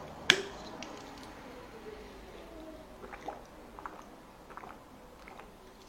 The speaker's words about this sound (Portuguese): Pera aí, deixa eu beber uma água.